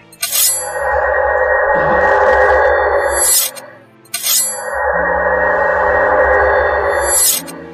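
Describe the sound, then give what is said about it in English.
A loud electronic stream transition sound effect plays twice in a row, each pass opening and closing with a bright whooshing burst around a sustained, droning synthetic hum. No voices are heard. “You timed that perfectly with the transition sound”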